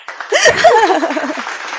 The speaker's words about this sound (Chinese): 鼓掌鼓掌！ 我以为真的，我这里有那个音效。